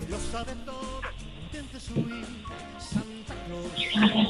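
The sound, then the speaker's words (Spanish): A child, asked to act like a little dog, imitates a dog barking, giving several short, yappy woofs spaced about a second apart, with other voices and household noise in the background. “¿Le puedes hacer como un perrito?”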